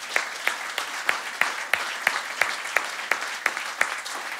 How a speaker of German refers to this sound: Gib mal einen Applaus